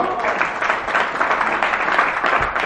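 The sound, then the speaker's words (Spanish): Steady applause from a group, many hands clapping in a dense, continuous patter at an even loudness for a few seconds, with faint voices mixed in. “hay que darle un súper aplauso, ¿no?”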